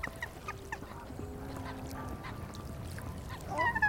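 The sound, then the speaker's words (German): Geese honk repeatedly at the Hinterbrühler See lake near Munich as a goose swims toward the shore to escape an angry swan: several short nasal calls scattered over steady low ambient noise, ending in a louder burst of honking. “Um dem wütenden Schwan zu entkommen, schwimmt die Gans auf das Ufer zu.”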